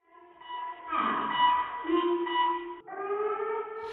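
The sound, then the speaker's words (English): An earthquake early-warning alarm with a countdown blares with loud, steady electronic tones that shift pitch in a few sustained segments, like a siren, with no clear voice audible. “You can hear the countdowns.”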